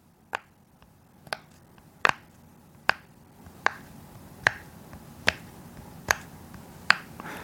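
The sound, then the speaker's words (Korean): A series of nine crisp, snappy pops from a rainbow-colored rubber pop-it fidget toy being pressed, spaced about a second apart in a steady rhythm, clear with no talking. “이 무지개색이고요. 이게 그 고무인데 이걸 누르면 이런 소리가 나요.”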